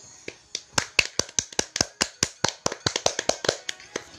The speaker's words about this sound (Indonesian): Oke, boleh kita berikan tepuk tangan